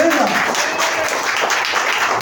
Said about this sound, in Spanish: Denle un fuerte aplauso a sus Padre Celestial,